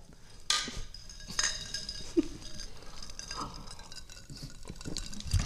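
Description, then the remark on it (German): Two bright clinks of glasses touching in a toast in St. Peter, each leaving a short high ring, followed by softer clattering and handling noises, with no voices. “Auf uns, Cheers. auf uns. Auch gerne anstoßen. Das hören die Gäste immer gern.”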